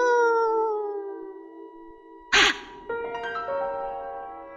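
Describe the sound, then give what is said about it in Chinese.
An eerie, drawn-out wailing cry, the crying of a pale female ghost holding an infant in a ghost story, that slowly sinks in pitch, broken by a sudden harsh breathy burst, then another wavering, moaning wail that carries on to the end. “他的手上抱着婴孩，然后呢，一直发出哭泣的声音，呜呜呜！”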